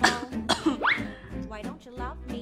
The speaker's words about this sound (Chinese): 我装模作样的点点头，然后再故意咳嗽两声。